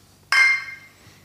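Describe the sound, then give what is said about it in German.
A single bright clink of glasses touching in a toast, sharp at first and then ringing out and fading over about a second, with no talking over it. “Cheers, Prost. Cheers.”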